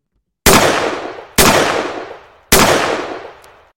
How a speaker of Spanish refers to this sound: Ahí hacemos un disclaimer, no vaya a ser que algún perro se asuste con el tiro.